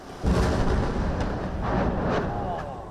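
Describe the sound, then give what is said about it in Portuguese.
Explosions from Israeli bombardment of the Gaza Strip: a deep, heavy boom erupts and rolls into a sustained low rumble, with a couple of further blasts swelling through the roar before it slowly fades. “O bombardeio também atingiu o porto do território.”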